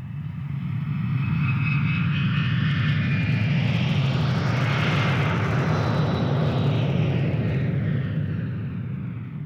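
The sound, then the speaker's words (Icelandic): A giant KLM airliner's engines start up in fog at six minutes past five as it begins to move off, a loud continuous low rumble with a rising whine that swells toward the middle and eases slightly at the end, no voices present. “Seks mínútur yfir fimm, vélarnar rumskuðu og risavaksinn flugvelin mjakaðist af stað.”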